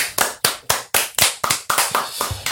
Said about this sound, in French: Ouais, mais attends, j'avais pas fini mon intro, mais vas-y, allez, on peut applaudir. Allez, on applaudit.